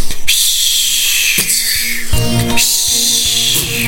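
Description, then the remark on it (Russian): Fireworks: a steady, high hissing whistle runs throughout, broken by several sharp bangs from bursting shells at irregular intervals. No one speaks. “На заднем фоне салют.”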